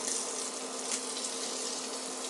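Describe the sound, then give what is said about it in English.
Food sizzles steadily in a frying pan as it is slowly swirled around the pan, a continuous bright, crackling hiss that holds an even loudness throughout, with a faint low hum beneath it and no one speaking. “swirling it around the pan so it sizzles continuously.”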